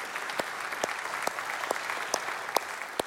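A crowd claps steadily in a dense, even wash of applause, with a few louder individual claps popping out at irregular intervals. No voices are heard.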